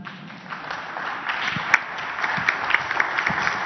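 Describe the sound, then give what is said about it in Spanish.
A crowd applauds steadily, many hands clapping in a dense, continuous patter at moderate loudness, with a few sharper claps standing out, and no talking. “Un aplauso, ¿no?”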